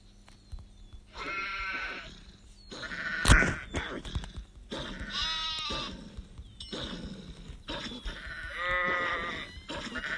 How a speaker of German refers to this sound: Ich höre da noch mehr Schafe. Schaf, Schaf, Schaf, Schaf, Schaf, Schaf, Schaf.